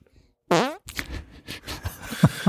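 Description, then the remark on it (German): A loud, brassy fart noise made with the hands blurts out once, sustained for a moment, followed by softer rustling and a few faint thumps. “Das, ich mache es meistens so, dass ich, wenn ich irgendwo im Studio stehe und ähm, ich warten muss, dann fange ich an, mit den Händen zu pupsen.”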